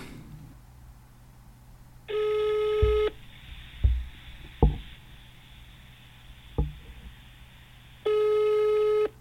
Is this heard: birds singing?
no